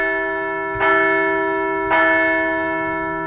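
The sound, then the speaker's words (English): A large bell is struck twice, about a second apart, rung to celebrate the Philadelphia Phillies as National League champion; each loud clang blooms into a rich, sustained metallic ring that hums on between strikes. No voices are heard. “So let's ring the bell.”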